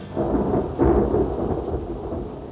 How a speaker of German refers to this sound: Ein Gewitter zog auf.